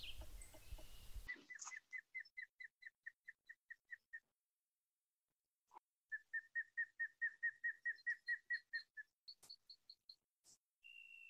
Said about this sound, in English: I went out into a nearby piece of Acadian forest and tried to capture some of the sounds. I'm near a wetland about half a kilometer away from the road, and there's actually an osprey nest nearby.